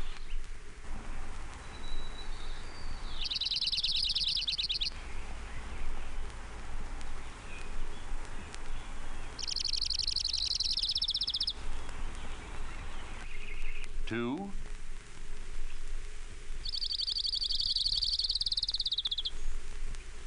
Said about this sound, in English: orange-crowned warbler.